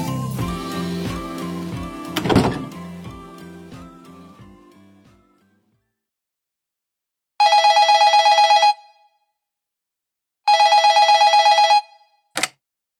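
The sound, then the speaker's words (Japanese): A telephone rings twice in loud, buzzing bursts separated by a short pause, followed by a sharp click like a receiver being picked up to answer the call. A fading musical jingle precedes it. “お電話ありがとうございます。”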